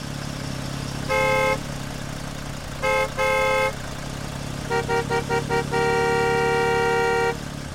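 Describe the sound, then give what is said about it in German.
Car horns honk over a steady rumble of idling traffic at an overfull parking lot on a warm, sunny holiday day: a couple of separate blasts, then a rapid series of short beeps ending in one long sustained honk, loud. “So oder so ähnlich klingt es an schönen, warmen Tagen in den Ferien. Der Parkplatz ist mehr als voll.”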